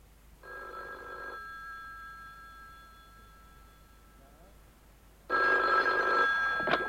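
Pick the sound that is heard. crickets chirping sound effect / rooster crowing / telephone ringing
telephone ringing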